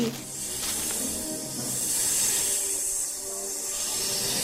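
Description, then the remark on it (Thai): A cobra returning to its hollow by a tree hisses in a long, steady breathy rush that swells slightly and holds for several seconds, moderately loud, with no voices or other sounds alongside. “ในขณะนั้นงูเห่าตัวนั้นก็กลับมาที่โพรงพอดี”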